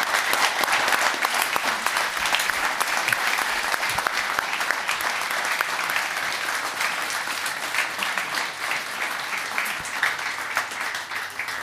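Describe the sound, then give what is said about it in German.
A live audience applauds loudly and steadily for about twelve seconds, a dense wash of clapping with scattered cheers and whoops rising through it, without a break. “Macht mal bitte auch Lärm”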